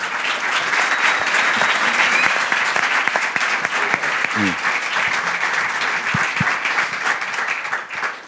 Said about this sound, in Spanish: Así que con este aplauso, luneros, luneras, recibimos a Colgados del Aro.